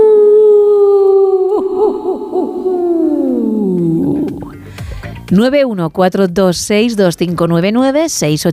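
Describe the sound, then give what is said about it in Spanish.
A person imitates a wolf howl: one long, sustained voiced tone slowly sliding downward, followed by a string of wavering, yipping rises and falls in pitch. “Uh, no, voy a, no voy a hacer el lobo hoy. Bueno, venga, lo hago.”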